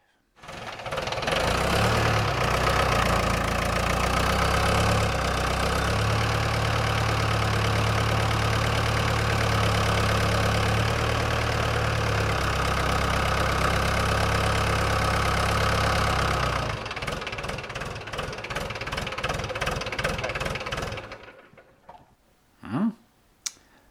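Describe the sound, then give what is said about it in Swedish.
A farm machine's diesel engine idles steadily and loudly, then its tone shifts and labors with rapid knocking pulses as its loader takes on load, before cutting out near the end. “det här är mer en maskin som har blivit vanligare på så, kan man säga då, gårdsmaskin”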